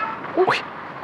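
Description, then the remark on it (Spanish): A single short cat meow with a rising, slightly strained tone, heard once over steady low background noise. “Yo oí al gato, pero no sabía.”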